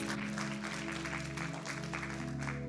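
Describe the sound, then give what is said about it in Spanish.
A crowd claps steadily for a few seconds in applause for Jesus after a prayer, a dense, even patter of many hands over a sustained low keyboard-like drone that continues underneath. “Un aplauso para Jesús y ya nos vamos.”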